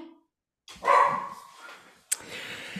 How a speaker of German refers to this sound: Die Hunde. Da ist es. Äh, äh, Entschuldigung, könnten wir aufhören zu bellen?